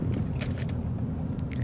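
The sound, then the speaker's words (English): Steady low rumble of street traffic in Korea, a constant droning hum of engines and road noise, with a few short, faint hissing ticks scattered over it. No one speaks. “Oh, we're in Korean traffic again.”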